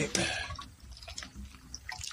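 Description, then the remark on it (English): Water dripping and trickling out of a very long PVC pipe holding very soft clay, opening with a brief splashy gush followed by scattered, irregular drips and small splashes; the water had been left in the pipe to keep the clay from drying out. “There was just some water in there to to keep the clay from from drying out.”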